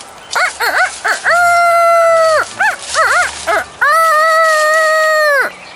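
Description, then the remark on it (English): A voice imitating a rooster crowing, twice in a row: a few short rising-falling yelps, then a long drawn-out held note, loud with no other talk. “The woman was sweating, shaking, blowing her cheeks out, and crowing.”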